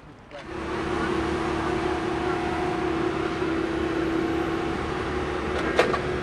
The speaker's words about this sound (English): So my, my body is hugging this chain link fence along 66 as a large machinery is placing a brand new railroad tie underneath the rails in the stone in the stone bedding and you can hear it clanging away it's hot it's noisy its exhaust is blowing